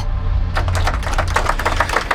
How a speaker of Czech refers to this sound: Během eh, té znělky tady opět zní potlesk, tak vypadá to, že ti, kteří přišli na národní třídu, s vámi souhlasí.